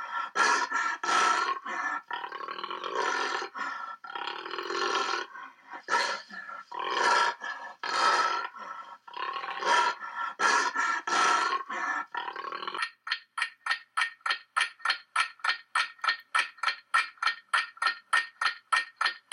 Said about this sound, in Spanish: ¡El jaguar! No es una moto prendiendo ni nada por el estilo, es el gran jaguar, la única especie del género pantera que habita en América.